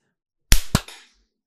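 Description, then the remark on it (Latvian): A loud, sharp hand clap, the hosts' traditional opening clap, followed a quarter second later by a second crisp crack, with a brief ringing decay. Nobody talks during it. “Jā, un atkal ar mūsu tradicionālo plaukšķi mēs varam atklāt.”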